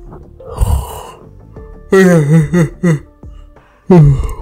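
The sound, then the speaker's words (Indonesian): A person yawns, a breathy start giving way to loud, drawn-out voiced groans that waver in pitch, then a final short vocal burst. “menguap gua tai”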